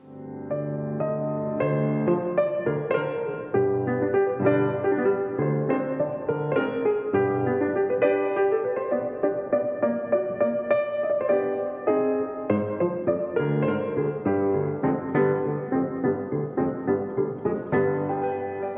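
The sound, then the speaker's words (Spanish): The closing passage of the first romanza of a zarzuela, performed as written in the score, which marks it to be sung por bulerías: a classical voice with instrumental accompaniment, full and steady, with rich sustained notes and rhythmic phrasing building toward the final cadence. “es el final de la primera romanza de Mariani, que debe cantarse, de acuerdo con la partitura, por bulerías”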